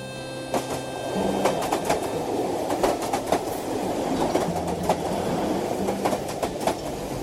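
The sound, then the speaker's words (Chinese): A passenger train bound for Guangzhou pulls out of the station in the afternoon and clatters along the tracks, a steady low rumble punctuated by sharp, uneven clacks of the wheels over the rail joints, with no voices. “下午两点多，站台最后一名旅客提着行李走上车厢后，火车咔嚓咔嚓往前开。”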